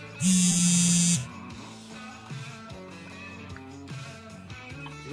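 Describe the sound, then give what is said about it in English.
A loud electronic buzz, like a phone or pager vibrating, sounds once for about a second, then stops, leaving a quieter background of soft tonal murmur. “Sound like an old school pager going off.”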